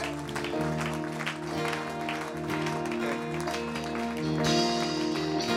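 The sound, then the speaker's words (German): Steady audience applause given after a prayer, mixed with sustained instrumental music holding long chords, the clapping continuous throughout and swelling slightly louder toward the end. “Hey, lass uns einen Applaus geben.”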